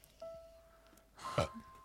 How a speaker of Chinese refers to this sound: 我没打嗝， 我刚才打完不告 我没打。 你打的